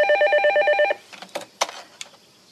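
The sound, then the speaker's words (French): A telephone rings loudly with a rapid, trilling bell for about a second, then stops, followed by a few faint clicks and rustles as the receiver is handled. “Il va, il va, il va sûrement rappeler. Hein. Je te confisque le téléphone demain.”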